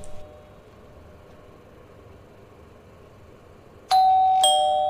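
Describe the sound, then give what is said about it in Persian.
In a dramatized story, a quiet room hum at a home gives way to a loud two-tone doorbell chime near the end, the second tone ringing out and fading slowly. “کیف دستیشو روی اوپن میذاره کتری برقی رو روشن میکنه با شنیدن صدای زنگ نگران میشه”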